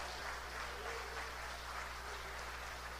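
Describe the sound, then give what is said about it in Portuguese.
An audience applauds to give glory to God in a steady, dense wash of clapping that holds for the whole stretch without clear individual claps. It is fairly faint, with a low hum underneath and no voices. “Pode aplaudir e dar glória a Deus.”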